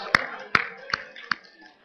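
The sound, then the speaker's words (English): Four crisp, evenly spaced claps from an audience sound about once every half second, with only a faint murmur in the background between them, clapping for a good point someone made. “Let's clap for that point.”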